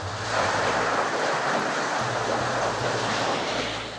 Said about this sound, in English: but it is absolutely raging, and we keep seeing these pulses of water coming up onto the street. I'm going to stop talking for a second and just let you listen to this.